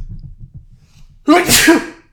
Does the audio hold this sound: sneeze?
yes